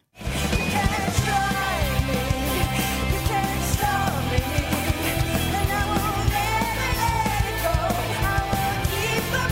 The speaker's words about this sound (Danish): Jeg tænkte også, om du lige hører lidt af, af den her vindersang. Ja, tak.